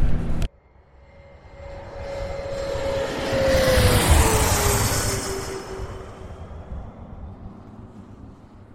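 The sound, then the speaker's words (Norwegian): A heavily loaded Boeing 777 takes off, its broad jet roar swelling to a peak midway with a whining engine tone sliding downward, then slowly fading. No one speaks. “Da skal vi nyte synet av en rimelig fullasta 777 her nå.”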